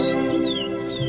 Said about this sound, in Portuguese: Quando sentiu que tinha parado, ouviu o som de pássaros cantando